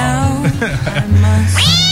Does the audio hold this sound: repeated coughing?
no